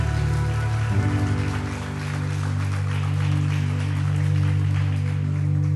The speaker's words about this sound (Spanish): Sí, da un fuerte aplauso al Dios, Señor.